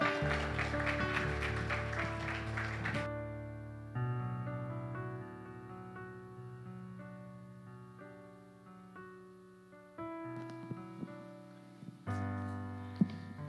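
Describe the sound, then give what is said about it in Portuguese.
A church audience claps loudly for the Lord over sustained keyboard music for about three seconds. The applause then stops and the held chords carry on alone. “Aplauda ao Senhor.”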